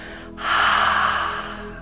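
A single long, open-mouthed exhale demonstrating ujjayi breathing, a breathy "haaa" like fogging a mirror, steady for about a second before tapering off. No one speaks.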